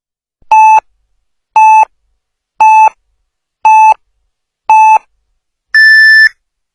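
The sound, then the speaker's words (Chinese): Radio hourly time signal marking 23:00 Beijing time on Zhengzhou News Radio (FM 98.6): five short, evenly spaced mid-pitched beeps about a second apart, then a final longer, higher-pitched tone, loud and clear with no talking. “北京时间二十三点整。”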